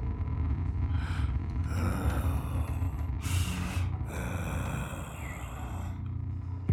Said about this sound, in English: Heavy breathing slowly filled the silence.